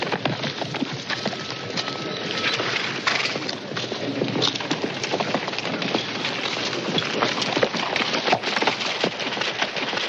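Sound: horse hooves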